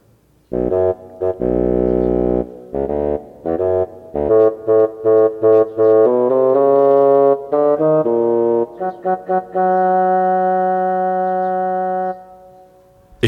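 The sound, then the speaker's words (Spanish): A bassoon plays the theme of Pedro's grandfather as a solo melody in a low, reedy register, moving from long held notes into a run of short detached notes and back to sustained tones, with no talking. “El tema del abuelo de Pedro es interpretado por el fagot.”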